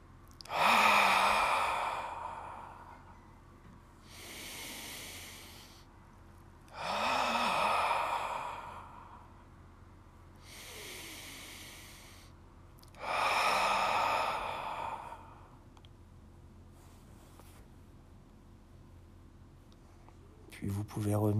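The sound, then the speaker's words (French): Slow, deliberate breathing in a perineal breathing exercise: three cycles of deep inhalations while contracting the perineal muscles, followed by long, forceful, airy exhalations while releasing the perineum and drawing in the navel, paced with short pauses between, with no talking. “on prend d'abord une profonde inspiration, on contracte les muscles du périnée. En soufflant, on relâche le périnée, on rentre le nombril, on se grandit et on éloigne les épaules des oreilles.”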